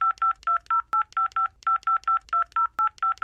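A rapid string of telephone keypad tones, about fifteen short dual-pitched beeps punched in quick succession as a customer number is entered into an automated phone service line, clear with no talking.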